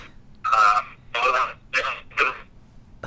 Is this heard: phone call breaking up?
yes